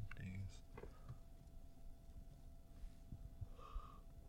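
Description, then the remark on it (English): A soft yawn: a drawn-out breathy exhale with a brief vocal tone near the end, after some quiet snuffling and breathing sounds at the start. “yeah, you yawning. That mean cozy hour over.”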